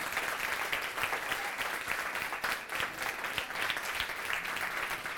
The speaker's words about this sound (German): Ansonsten würde ich jetzt mal einen ganz großen Applaus bitten von euch allen für unsere Dozentin.